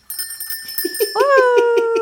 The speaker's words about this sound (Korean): you brought Christmas bells 그러니까요. and sleigh bells.